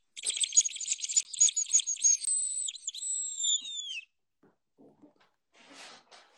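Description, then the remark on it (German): A hunting lure call imitating the whimpering of a bird that has been seized, a shrill, raspy squealing in rapid pulsing bursts for about four seconds, then fading into a few faint scratchy noises. Fairly loud, no voices. “Und dann, wenn der Vogel quasi gepackt wurde und dann macht”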